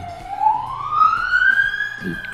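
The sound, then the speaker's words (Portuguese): An ambulance siren wails outside, a single rising tone sweeping steadily upward, with faint background voices underneath. “Pior que não, ambulância e eu já tô legal aqui.”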